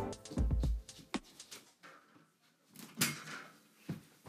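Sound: door being closed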